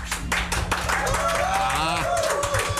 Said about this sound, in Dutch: het is toch altijd fijn om met applaus te beginnen aan eh, de tweede helft van het programma.